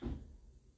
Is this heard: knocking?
yes